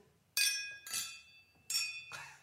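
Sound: glasses clinking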